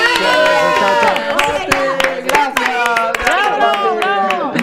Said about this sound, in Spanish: Un aplauso